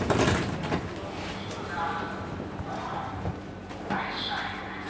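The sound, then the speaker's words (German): The front door of a house in Berlin being opened by a jogger: a few solid clunks and rattling latch sounds spread over several seconds, with a low ambient hum behind them. “Ein Jogger macht mir die Tür zu Alex Haus auf.”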